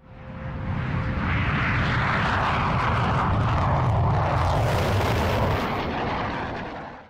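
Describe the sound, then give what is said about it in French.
A Mirage III jet fighter roars overhead, a loud, dense rumbling blast that swells quickly, peaks with a harsh high-pitched whine around the middle, then begins to fade. No one speaks. “Oui, ça c'est le bruit d'un Mirage 3 qui passe au-dessus de votre tête.”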